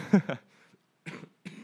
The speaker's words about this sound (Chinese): 奇怪，我今天应应该说，我这两天都有点怪怪的，就是。好像一直有点想咳嗽的感觉，好可怕。